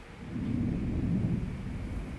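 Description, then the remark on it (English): A low, continuous, hollow-sounding rumble of a glacier slowly melting at high altitude in Baltistan, a faint echo of movement rather than dripping, holding steady for a couple of seconds with no voices present. “And that faint echo is the glacier slowly melting.”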